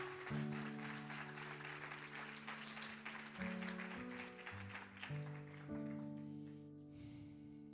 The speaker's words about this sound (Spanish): Dale un aplauso al Señor, vamos.